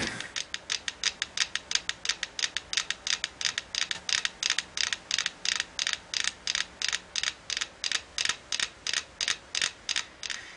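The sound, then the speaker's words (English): Metronomes, placed together on two rotating cylinders so the vibration through the wood couples them, tick in steady unison, a crisp run of about three sharp, bright clicks per second that holds an even rhythm throughout, with no voices. “And now listening to their click.”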